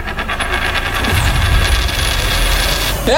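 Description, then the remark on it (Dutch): A coin is tossed for heads or tails and clatters down, landing heads, against a steady background of rumbling mechanical noise, with a brief metallic ring near the end. “Zullen we eens even een poging wagen? Wat zal het zijn? Kop of munt?”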